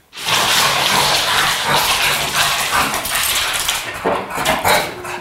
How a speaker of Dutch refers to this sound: Tossie, Tossie, ga zitten. Dit was de hond.